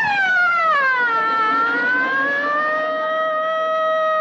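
A fire truck siren wails steadily and loudly, its pitch dipping and then slowly rising again in one long continuous tone, with no voices over it.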